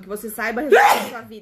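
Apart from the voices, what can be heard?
sneeze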